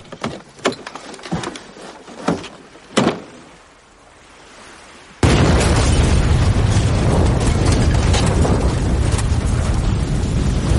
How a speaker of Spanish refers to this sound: La autocaravana estalla debido a la fuerte explosión. Cientos de escombros vuelan por el aire y una densa humareda de color negro y blanco inunda el lugar.